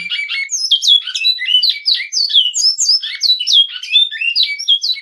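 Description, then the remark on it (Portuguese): A captive great-billed seed-finch (bicudo) sings its classic-type song, a fast, continuous warbling song of rich whistled and chirping notes, loud, running unbroken throughout with no voices present. “Então tem lá o canto flauta, esse aí que você está ouvindo, o canto clássico.”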